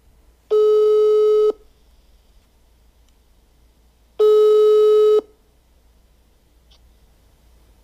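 Two steady, buzzy telephone ringback tones, each about a second long and spaced several seconds apart, sounding clearly over a quiet line hum while a call is being placed. Nobody speaks.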